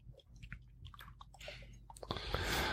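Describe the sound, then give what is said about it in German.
Steady chewing of a French hard cheese, with small moist crunches and mouth clicks that grow louder and denser near the end; no one speaks. “Sehr lecker. Noch nie gehört. Käse, ein französischer Käse. Hartkäse, ja.”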